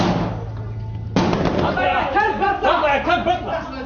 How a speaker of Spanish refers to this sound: continúan disparando sin parar en el interior de esta casa, donde probablemente haya soldados de Gaddafi que se están resistiendo a ser detenidos en hechos prisioneros. El tiroteo es muy intenso, no sabemos qué sucede, es muy confuso.